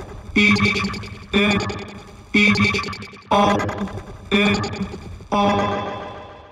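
A hip-hop song intro: six loud, distorted, effects-heavy stabs hit at a steady pace about a second apart, the last one ringing out longer, with no voices.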